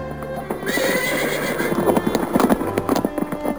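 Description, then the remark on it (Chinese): The horse-drawn carriage of the old master Pendaford, pulled out by coachman William, speeds off with a brisk, steady clip-clop of hooves while a horse lets out a long, high whinny over the rhythmic beats, fairly loud throughout. “佩林上了马车，车子便疾驶而去。”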